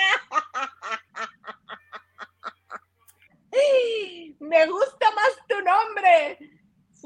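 A goose honks in a quick rhythmic series of about ten short nasal calls, pauses, then lets out longer, drawn-out honks that rise and fall, loud, with no one talking.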